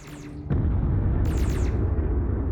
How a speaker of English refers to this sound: What's that? I hear explosions or something.